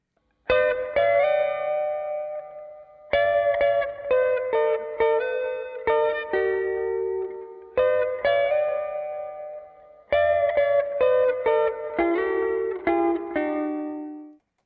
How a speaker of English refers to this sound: So we've got all of our sound crafted together from the start with our guitar as a Squier Classic Vibe Strat, to our Vox Valvenergy Silk Drive running as our amp, to our Fender Marine Layer Reverb, our MXR Carbon Copy Delay, and our Electro-Harmonix